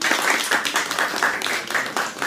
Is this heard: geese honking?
no